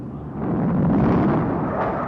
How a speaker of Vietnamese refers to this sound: địch bay rất nhiều và bay tới đồng hới bằng nhiều phía khác nhau bay cao hơn hòng tránh các hỏa lực của ta nhưng tôi đã nghe rõ nhiều tiếng súng của các phía của ta đã bắn địch ở tất cả các phía của chúng bay tới